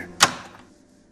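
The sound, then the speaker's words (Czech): A bathroom door is pushed shut and locked with one sharp bang that quickly fades, with no voices. “Když jsme vběhli do koupelny a zamkli jsme za sebou dveře.”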